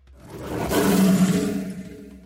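A lion lets out one deep, rumbling roar that swells to full strength and then slowly trails off. It is loud, with no voices.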